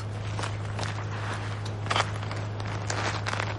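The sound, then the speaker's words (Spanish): Steady footsteps crunch along at an unhurried pace toward a closed well in a prison yard, several soft scuffing steps over a constant low hum, with no voices present. “Cero se acerca a un pozo cerrado en el patio y consulta su reloj.”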